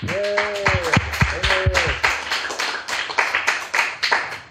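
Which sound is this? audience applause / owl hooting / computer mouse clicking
audience applause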